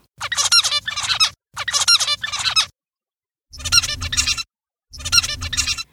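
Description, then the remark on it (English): Zebra finch song: four loud bursts of buzzy, squeaky chirps, each repeating a similar motif, with a short pause midway and no talking. “So, a zebrafinch tutored by another zebrafinch would produce similar motifs in the same sequence as its tutor.”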